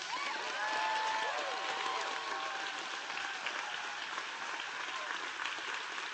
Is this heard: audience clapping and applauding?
yes